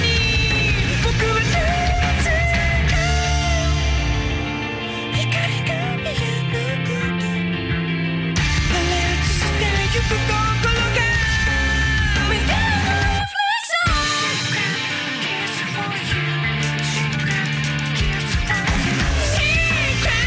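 A loud, dense rock song plays throughout, with driving drums, heavy guitars and strained vocals, cutting out for a split second near the middle before crashing back in.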